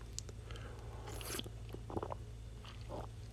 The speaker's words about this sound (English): Ah, sip of water for that.